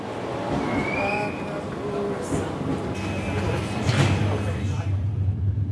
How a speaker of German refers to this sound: Auf der Bahnstrecke von Innsbruck zum Brenner verkehren nicht nur die Fernzüge, sondern auch im Stundentakt eine S-Bahn. Und in der bin ich jetzt mit relativ vielen Leuten unterwegs.